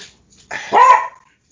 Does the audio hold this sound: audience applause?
no